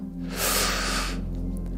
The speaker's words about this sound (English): as I speak, I'm not breathing enough. So you could probably tell I'm like losing my breath